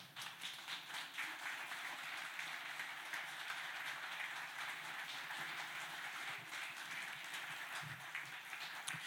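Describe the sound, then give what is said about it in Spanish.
A church audience applauds the Lord during a sermon, clapping steadily for about nine seconds: a dense, crackling wash of many hands at an even level with no voices on top. “Dale un fuerte aplauso a tu Señor.”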